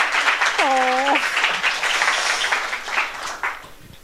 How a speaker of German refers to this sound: Wow, ein Applaus